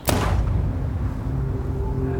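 A single sharp gunshot cracks out at the start, then a low, rumbling boom lingers and hums steadily for the next two seconds. The shots are fired at 23:21 by a man approaching a couple from behind; Olof Palme is shot in the back. No voices are heard.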